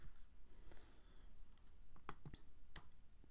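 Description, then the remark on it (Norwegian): A page being turned, heard as a few quiet, crisp paper clicks and rustles clustered near the end, with a soft handling sound and no one speaking. “Okay, blar jeg til neste side.”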